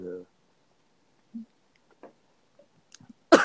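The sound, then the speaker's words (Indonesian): Someone chewing nasi padang rice, with soft, irregular wet squishes and small clicks spaced out over a few seconds, ending in a sudden louder burst of noise. “Kebesaran bang nasi iya padang ya, dikunyah.”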